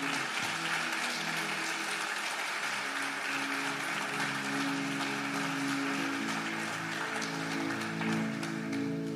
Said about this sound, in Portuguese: Aplauda ao Senhor bem forte, a Ele toda a glória.